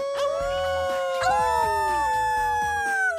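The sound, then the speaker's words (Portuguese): Several voices howl together in long, rising and falling wolf-like wails, overlapping loudly and continuously, clearly people imitating a wolf's howl rather than an animal: the cave gang and everyone celebrating with them, during the 'Desafio Lobo' (Wolf Challenge) on the Sunday programme Três Horas Doidas. “Nem é preciso dizer que o bando das cavernas e todos os que com eles festejavam começaram logo a imitar o uivo do lobo.”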